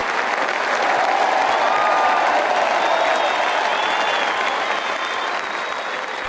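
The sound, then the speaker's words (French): An applause sound effect: steady applause from a crowd, dense continuous clapping with a faint whoop or cheer tone threading through, holding a fairly even loudness across the whole stretch before easing slightly at the end. “Donc ça, ces applaudissements, bon, la technique là aussi euh, a donné tout ce qu'elle pouvait, mais ces applaudissements, vous les aurez dans la saison.”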